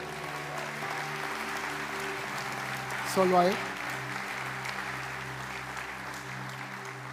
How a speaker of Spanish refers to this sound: un aplauso al Señor.